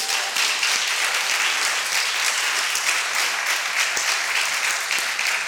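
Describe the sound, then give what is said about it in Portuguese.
An audience breaks into sustained applause, a dense, steady clatter of many hands clapping at an even loudness throughout, with no voices standing out. “Você não dão nenhum aplauso por isso?”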